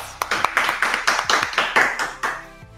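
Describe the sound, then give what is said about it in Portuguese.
Brisk applause: a few hands clapping in a quick, fairly steady rhythm of sharp, bright smacks for nearly three seconds, then tapering off, with no voices over it. “Episódio do G Responde 46 palmas.”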